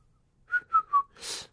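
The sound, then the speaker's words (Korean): Someone whistles three short, clear notes in quick succession, each sliding slightly downward, then finishes with a breathy rush of air. The sound is moderately loud, with no talking. “휘파람 되고 안 되는 것도 유전인가?”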